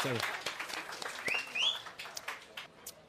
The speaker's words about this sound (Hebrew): זו שאלה פשוט נהדרת, אה, ו... אה, אז מגיעות מחיאות כפיים, בטח, נו, זה